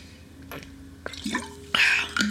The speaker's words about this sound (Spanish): Ya me hacía falta agüita. Bueno, media hora sin tomar agua, eh, estoy batiendo el récord.